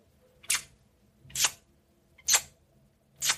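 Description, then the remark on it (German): A voice imitates a colourful Swatch watch ticking with four soft, kiss-like lip smacks, evenly spaced about a second apart, against a quiet background. “Ja, die hat so leise, leise getickt und dann, äh, das klang immer wie so, wie so Kussgeräusch.”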